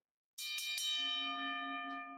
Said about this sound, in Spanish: Así se suena una campana.